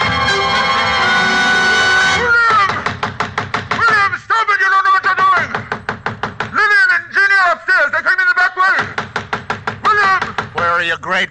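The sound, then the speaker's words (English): A sustained ringing tone gives way to rapid, steady hammer blows driving nails into heavy wooden boards across a door, loud, with brief pauses between bursts of strikes. “As I nailed the boards across the door, I felt as if I were driving nails into his cock.”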